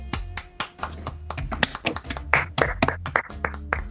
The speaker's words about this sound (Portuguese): A torcida Cheesehead é a melhor torcida da NFL. Uma salva de palmas, torcida certeza.